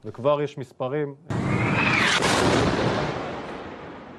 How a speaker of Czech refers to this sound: Bezpečnostní kamera v osadě u hranic s Gazou zachytila raketovou salvu vypálenou z Gazy. Jiný záběr havárii jedné ze střel ve vzduchu a krátce poté výbuch na zemi pod ní.